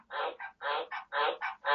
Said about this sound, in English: I'm so sorry if you hear background noise. That's my frogs croaking, which is the right noise for your job, croaking. very ominous croaking.